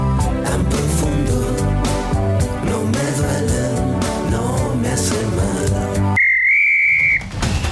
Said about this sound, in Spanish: Ha sonado el pitazo final de este podcast.